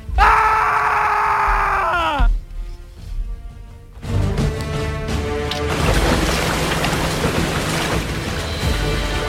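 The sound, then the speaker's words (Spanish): A loud, sustained scream from a man aboard a ship sailing from Mexico to Spain after escaped jaguars attacked a man in the hold. The scream is strained and slides down in pitch after two seconds, then a short lull before a steady wash of noisy commotion like splashing water. “¿Qué está pasando? ¿Qué vienen esos gritos?”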